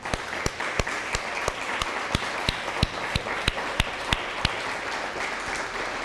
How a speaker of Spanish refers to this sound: un fuerte aplauso.